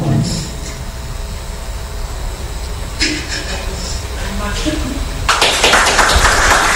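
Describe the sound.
Audience applause rises over a murmuring crowd, swelling into a dense, loud burst of clapping toward the end, with indistinct voices in the background. The applause comes as a speaker ends her speech at a long-awaited celebration.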